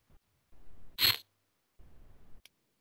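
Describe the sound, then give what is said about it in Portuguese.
Keyboard typing and button clicking, which exited a Skype call, in short bursts of rapid clatter, broken by one louder, sharper click in the middle and a final quick tap, with no voices. “Dá pra ouvir você digitando.”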